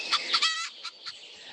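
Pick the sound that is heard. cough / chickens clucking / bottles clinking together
chickens clucking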